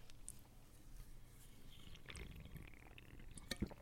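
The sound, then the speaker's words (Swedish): Someone cracks open a large green Monster energy drink can and slurps from it, with soft wet sipping noises and a sharp metallic click near the end, all fairly quiet. “Det är en stor burk, hör man. Mm. Man, man hör det där burkljudet.”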